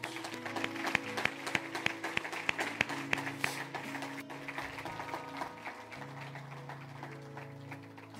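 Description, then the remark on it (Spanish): An audience breaks into a burst of applause for Jesus, many hands clapping loudly for a few seconds before thinning out, with sustained musical tones humming steadily underneath. “Démosle un fuerte aplauso a Jesús.”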